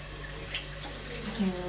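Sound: tap water running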